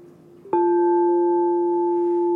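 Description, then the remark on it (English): A sound healing bowl tuned at 432 hertz to the note F is struck softly, then its tone holds steady and loud: a smooth mid-pitched hum with fainter ringing overtones above it and no voices. “This bowl is tuned at 432 hertz, which means 432 hertz.”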